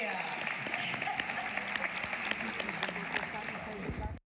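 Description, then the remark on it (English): Steady applause from a sizable audience at a film discussion, for Barbara Cummings, dense overlapping claps sustained for a few seconds at even loudness before cutting off abruptly. “Let's hear it for Barbara Cummings.”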